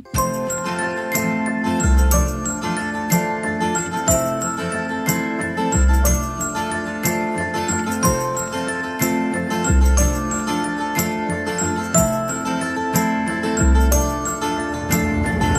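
An instrumental intro of a French song plays alone, with bright chiming melodic tones over a steady beat and a deep bass note pulsing every couple of seconds, loud and even, with no singing yet.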